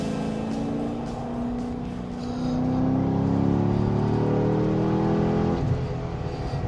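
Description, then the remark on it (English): The deep 6.3-litre V8 engine of a 2011 Chevrolet Corvette Grand Sport, about 440 horsepower, roars as the car accelerates hard on the road with the windows open, its harmonic tones climbing steadily in pitch and loudness for several seconds before easing off, with no talking. “but when we come back, we'll open the windows and let you hear the full excitement of 6.3 and 440 ish horsepower in the 2011 Chevrolet Corvette Grand Sport.”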